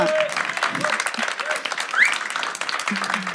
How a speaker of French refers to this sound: On peut l'applaudir.